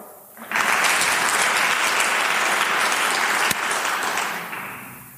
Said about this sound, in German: Also jetzt für die erste Variante ein Beifall. Wer glaubt, das ist, die, das ist, wie die Geschichte ausgeht?